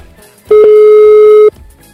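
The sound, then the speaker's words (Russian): A single loud telephone ringback tone sounds for about a second, a steady electronic beep on an unanswered call to a restaurant in Magnitogorsk, with quiet background before and after it. “а такое ощущение, что больше, потому что никто не поднимает трубку.”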